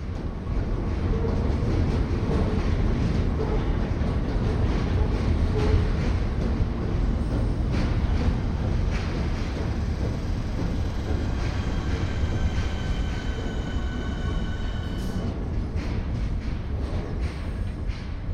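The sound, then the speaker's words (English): A train slowing down near a station rumbles past continuously, its heavy low roar steady and loud throughout, with faint metallic squeals and a hollow, echoing quality as the sound reverberates under a bridge. “the trains are kind of slowing down as they come past and kind of travel behind the head and and there's some really nice sort of reverberations as the train sound bounces under the bridge and yeah it's it's cool it's a nice spot”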